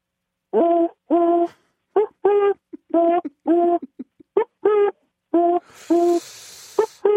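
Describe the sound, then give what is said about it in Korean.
A person imitates the call of a wild oriental turtle dove, the mountain dove heard in the countryside, with about a dozen short, hooting coos in an uneven rhythm, mid-pitched and fairly loud, with no other talk. “시골에 그 산에 사는 산비둘기”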